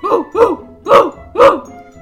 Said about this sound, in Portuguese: O cachorrinho.